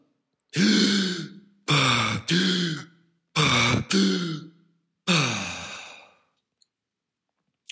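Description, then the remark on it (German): Three deep breaths taken after a breath-holding period, each a loud drawn-in inhale followed by a voiced, sighing exhale, evenly paced with short pauses between them and no talking. “Ich mache diese, diese Luftanhaltperiode bis zur fünften Kontraktion meistens und dann nehme ich einen tiefen Atemzug, besser gesagt drei tiefe Atemzüge.”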